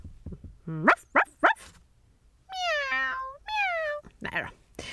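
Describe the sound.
A person imitates an English dog talking with a French cat: three short, sharp yelps, then two long, whiny meows with sliding pitch, voiced fairly loud.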